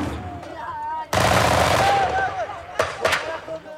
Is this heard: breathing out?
no